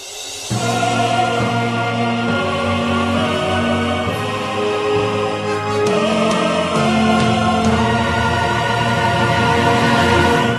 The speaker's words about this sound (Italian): E è il momento di andare di nuovo in musica